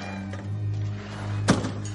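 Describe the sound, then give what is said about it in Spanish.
A car door thuds shut once as a woman gets out of the car, a short dull slam that stands out against a steady low humming background, with no one speaking. “Ella baja del coche.”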